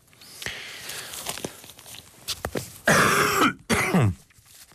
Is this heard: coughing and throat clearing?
yes